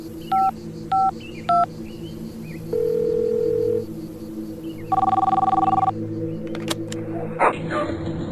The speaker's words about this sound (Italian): sono quasi le 4 del pomeriggio quando alla sala operativa della compagnia dei carabinieri di Stradella arriva una chiamata per il 112.